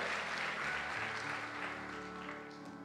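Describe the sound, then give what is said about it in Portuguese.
An audience claps loudly together for Jesus, a dense, steady wash of applause that holds strong for a few seconds before easing slightly, with a low sustained musical tone underneath. “Se você crê nisso, dê uma salva de palmas bem forte a Jesus, porque Ele é bom, bom, bom, bom e fiel.”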